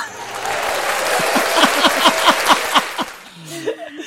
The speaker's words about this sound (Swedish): Och det får nästan en liten applåd där tycker jag.